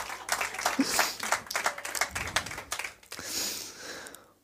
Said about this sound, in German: Kurzen Applaus, weil ich gerade lesen muss.